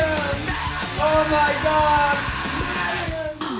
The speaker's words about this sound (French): Car de nouveaux hurlements font déjà trembler la cloison.